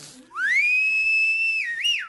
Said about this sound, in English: I want you to try that same whistle you just did. Look at you can see it. Come out of his mouth.